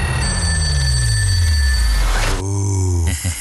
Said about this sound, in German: Sie gehen einfach nur für die ans Telefon. Das Telefon klingelt nur selten.